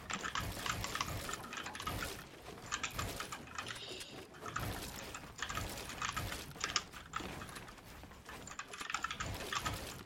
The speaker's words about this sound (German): Ich will jetzt einfach die Tastatur hören oder euch zeigen.